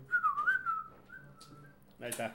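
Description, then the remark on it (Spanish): A clear, fairly loud whistle, given as a greeting to a chef friend, warbles briefly, then holds a long steady note for nearly two seconds before a voice cuts in at the end. “saludos a todos y mándele un saludo al amigo chef con cuatro chiflidos, ya es can.”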